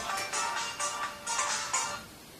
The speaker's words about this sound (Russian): Ну, можешь остановить просто телефон. Ничего, ничего страшного.